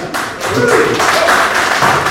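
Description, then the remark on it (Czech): An audience claps in a steady, dense burst of applause that holds at an even loudness for about two seconds, with voices faintly mixed in beneath the clapping. “To jako tleskáte tomu, že to vystříneme, jo?”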